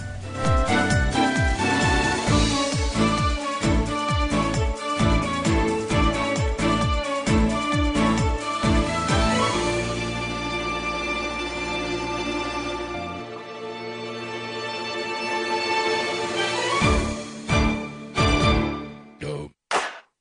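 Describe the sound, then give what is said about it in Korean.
An upbeat, lively funk-pop song, played as the first song of a radio broadcast, plays loud with a punchy, steady beat; the drums drop out midway for a sustained stretch, then return briefly before ending. No one speaks. “어제 오후에 이렇게 노래를 들어보다가 어, 좀 비트가 있고 약간 생기 있는 음악으로 들려서 준비를 해봤습니다.”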